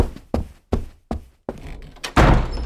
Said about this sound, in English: Foley's job is to be a very performative art because if you just put in stock footsteps, even the way we walk can vary greatly. Mm-hmm. Like if you're mad at your partner or something, you want to stomp away.